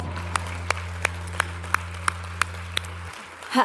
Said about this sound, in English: Um, and you are welcome to take your seats as you continue to applaud them. Uh, well done, guys.